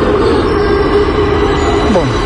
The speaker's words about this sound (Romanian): Eu am așteptat doar 12 minute, rezonabil în condițiile date. Eh, și uite, bucurie, vine metroul,